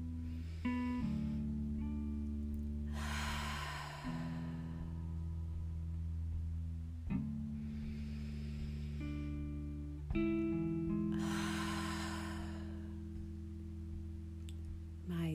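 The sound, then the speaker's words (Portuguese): Three long, deep breaths pushed out audibly through the mouth, each a breathy whoosh spaced a few seconds apart, over a soft, steady ambient music drone. “Realize três inspirações e expirações profundas, soltando o ar pela boca, emitindo um som, assim.”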